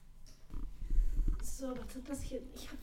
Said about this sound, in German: Warte mal ganz kurz, weißt du, was mich nervt? Hm, der Hund.